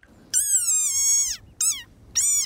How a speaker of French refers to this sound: Ce n'est pas une chauve-souris, c'est un Breviceps macrops, je vous l'ai dit. Le Breviceps macrops est une grenouille du désert. C'est une grenouille.